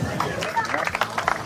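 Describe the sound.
A lively outdoor crowd at the summer party on Mols, held by IF Mols, murmurs and chatters, many overlapping voices blending into a steady hubbub with a few brief sharp sounds poking through.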